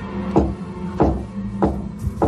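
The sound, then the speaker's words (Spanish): Four soft knocks on a bedroom door in an apartment at 11 at night, evenly spaced about half a second apart, muffled, with no one speaking. “Una de las inquilinas, la estudiante Corazón Amurao, ya metida en la cama, escuchó unos leves golpes en la puerta de su habitación.”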